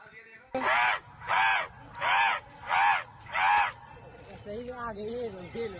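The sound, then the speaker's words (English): A man imitates crows to summon them, giving five loud, evenly spaced crow-like caws, each harsh and drawn out, then lighter chatter follows near the end. “this is a video of a man who could call crows at any time.”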